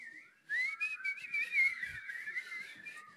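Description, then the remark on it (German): A person whistles a quick, wavering tune, the pitch sliding and warbling continuously for about three seconds after a brief soft lead-in, with no talking. “Lobet ihn mit Pfeifen. Können wir das mal schnell machen? Pfeifen.”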